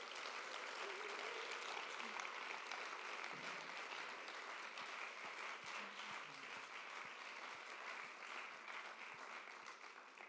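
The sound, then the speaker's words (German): An audience claps steadily for about ten seconds for people who told what Jesus had done in their lives, a dense, even wash of many hands with a few sharper individual claps and faint voices mixed in, fading slightly toward the end. “Okay, lasst uns den vielen mal einen Applaus geben.”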